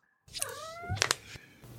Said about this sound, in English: Ha, Sumi the cat has got something to say about that.